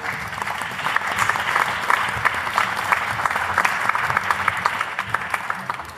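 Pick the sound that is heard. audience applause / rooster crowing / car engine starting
audience applause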